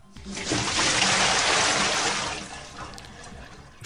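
A bucket of cold water is thrown, giving a loud rush of water that pours and splashes for a couple of seconds, then trails off into softer dribbling. No voices are heard.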